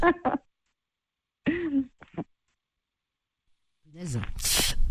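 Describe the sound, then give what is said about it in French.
A few short vocal bursts, then a harsh, noisy cough near the end, rough and breathy and louder than the sounds before it. “Ah ben j'ai une canne de tout, tu vois, tu m'as fait tousser du coup.”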